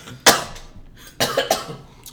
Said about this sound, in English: you know it's start with a cough.